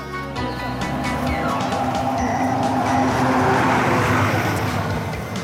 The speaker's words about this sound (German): Oh, jetzt kommt noch ein Bus, Achtung!